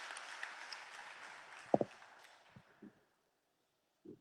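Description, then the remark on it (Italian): Dense audience applause gradually dies away over a couple of seconds, leaving a few scattered, isolated claps and soft thumps before silence. “Cosa c'è di più bello e di più toccante di, di, di di stringersi veramente attorno ad un applauso, attorno a quello che siamo noi”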